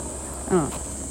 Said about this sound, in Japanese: セミがうるさいな